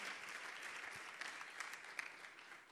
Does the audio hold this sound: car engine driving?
no